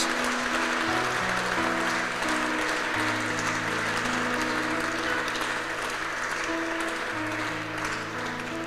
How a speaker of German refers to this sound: Hey, warum geben wir nicht jeder einzelne Person, die diese Entscheidung gerade getroffen hat, mega Applaus, herzlichen Glückwunsch.